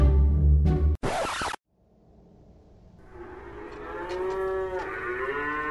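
Restless oxen moo loudly as a cart sways: a deep bellow opens, then a brief scratchy burst, and after a pause a long, rising moo swells and holds to the end.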